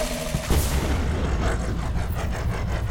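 A loud turbo boost whoosh from a vintage Jaguar fitted with a turbo button, driving through the trees, bursts in after a brief low hum, then carries on as a steady, rumbling engine roar with a rushing hiss over it, with no one talking.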